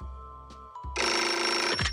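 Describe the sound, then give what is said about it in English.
A telephone rings loudly, a bright harsh burst of ringing that fills most of the two seconds, preceded by a low hum and a brief click. “The phone interrupted my daydream.”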